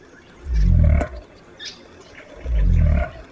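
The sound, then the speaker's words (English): Two deep, rumbling pig-like grunts from a southern cassowary on the forest floor, each about half a second long and a couple of seconds apart, loud, with faint bird calls and forest ambience behind. “pig like grunting on the forest floor tells us we're in the company of the largest bird on the continent, the southern cassowary.”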